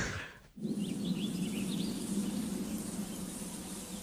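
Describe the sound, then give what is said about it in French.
Small birds chirp and twitter in a quick run of short, high tweets over a steady background hiss, fairly faint, with no one speaking. “Petit gazouille, d'oiseau.”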